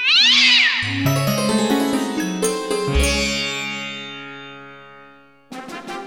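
A cat gives one drawn-out, wavering meow, its pitch sliding down, then ringing electronic musical tones and effects swell and fade, with a brief loud burst at the end.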